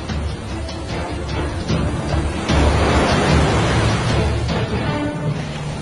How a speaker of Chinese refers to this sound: 大海并不平静，一场暴风雨开始了，海浪越来越大。